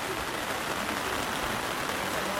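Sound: heavy rain pouring down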